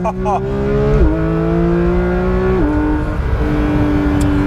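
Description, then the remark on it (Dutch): A Porsche 911 GT3 with a seven-speed PDK gearbox roars loudly, its droning pitch jumping upward twice as it downshifts with automatic throttle blips at nearly 90 on the speedometer going into bends, then pulling steadily under acceleration. “En dan kom ik hier bij wat bochten bij bijna 90 op de klok nog even terugschakelen.”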